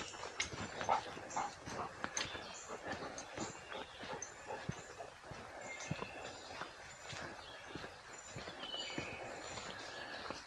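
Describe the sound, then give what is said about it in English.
A dog snuffles and pads along a well-marked forest trail among ferns on an overcast morning of about 65 degrees, eating things along the way, with steady rustling and crunching footsteps through leaves and undergrowth and no one speaking. “My dog's eating a lot of dumb things.”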